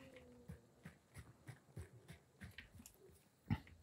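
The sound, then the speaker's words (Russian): Low, rough growls and snarls from dogs in a video game repeat in short irregular bursts, fairly quiet, with one sharper, louder snap near the end. No one speaks. “Собачки, собачки. Хорошо, собачки, по крайней мере, при прикрывают их отход, чтобы они так просто не выбрались.”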